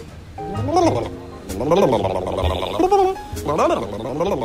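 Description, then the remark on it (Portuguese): A voice imitates a rumbling stomach (borborygmus) with three warbling, gurgling vocal bursts that rise and fall in pitch, fairly loud, with short pauses between them. “Borborigmo é o som dos gases que incomodam e causam dores na sua barriga.”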